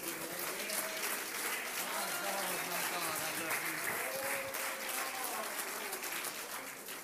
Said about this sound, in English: Let's clap our hands.